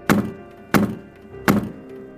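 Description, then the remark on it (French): Three heavy kicks slam against a door at a hotel at a steady, even pace to break the lock and force entry, each a loud, dull thud with a short rattling decay. No voices are heard. “Sachant cela, j'ai décidé qu'il valait mieux forcer le passage, alors j'ai donné trois coups de pied dans la porte pour tenter de casser la serrure.”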